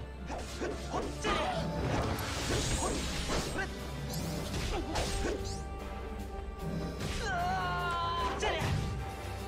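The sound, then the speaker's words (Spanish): Video game combat with repeated impact hits and whooshes, punctuated by the prince character's short pained cries and yelps when he is hit, layered over steady background music at a fairly loud level. “Lo único que me molesta un poco es cómo habla ah, bueno, cómo grita el, príncipe Puka cuando le dan”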